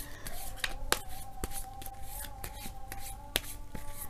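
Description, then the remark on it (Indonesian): Tarot cards being shuffled and drawn for a Gemini career reading, the card drawn being The Sun, with crisp papery snaps and rustling at an uneven pace over a faint steady hum, and no one speaking. “Kartu yang dibukakan adalah The Sun.”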